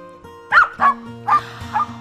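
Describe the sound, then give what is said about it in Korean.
Four sharp, excited barks from two pet dogs on a camping trip, in quick succession and loud, with brief pauses between them over a low steady background hum. “우리 멍멍이 두 마리도 함께 갔죠.”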